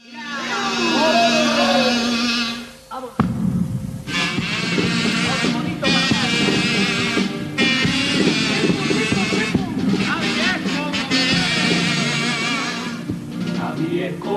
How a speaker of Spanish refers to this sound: Vamos a escuchar este pedazo de paso doble en el que Cádiz es como Belén.